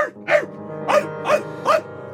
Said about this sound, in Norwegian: Ved firetiden natten til onsdag vektes en mann av sin skjellende hund.